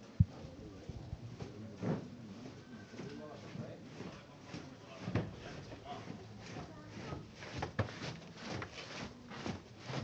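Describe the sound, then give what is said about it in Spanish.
Many bearers' sneakers scrape and shuffle together on the ramp as the palio float of the Virgen de las Lágrimas leaves the parish church of La Merced, in a steady, dragging rhythm, with voices murmuring underneath throughout. “se oye el rachear de las zapatillas en la rampa, suena ya la marcha real, saliendo ya el paso de palio de la Virgen de las Lágrimas por la puerta principal de la parroquia de la Merced”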